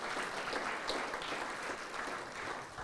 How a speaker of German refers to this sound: Bitte einen Applaus. Schön, dass ihr da seid.